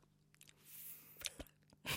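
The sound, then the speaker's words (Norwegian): Someone imitates a book page being turned with their mouth: a breathy swish, then a few short crackly clicks and a louder rustling burst at the end, with no talking. “Hvordan høres det ut når man blar i en bok?”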